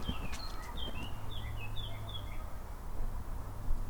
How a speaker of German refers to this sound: Habt ihr das gehört? Ja, ein Vogel hat gezwitschert